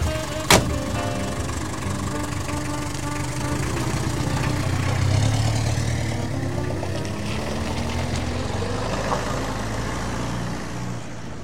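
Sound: taxi car engine running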